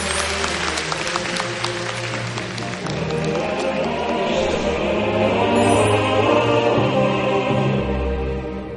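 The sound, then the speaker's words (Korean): Sustained audience applause, a dense wash of many hands clapping that swells slightly and holds steady for several seconds before easing off, with no voices standing out. “전국의 중3들에게 학생들에게 아이들에게 박수 한번 부탁드리겠습니다.”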